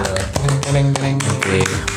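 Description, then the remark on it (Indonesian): An audience applauds: a steady, dense patter of many hands clapping at once, fairly loud throughout, with a faint sustained tone running underneath. “mudah-mudahan kita bisa tepuk tangan”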